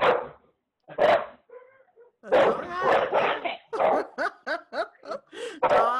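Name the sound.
dogs barking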